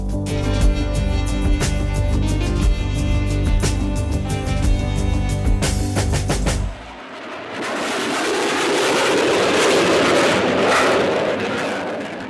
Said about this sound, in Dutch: Ja, dit is het geluid van 40 jaar geleden. Straaljagers die laag overvlogen boven een uh, eh, gekaapte trein. Die stilstond eh, in een weiland in Drenthe bij een dorpje dat de Punt heette. Het was op 11 juni 1977.